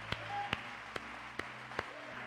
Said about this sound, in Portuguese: Você pode aplaudir o Deus do inexplicável? Amém.